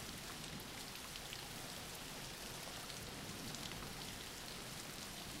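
Steady rain falls without pause, a soft, even hiss of countless drops with faint crackling patter on top. It is fairly quiet and unbroken, with no voices or thunder.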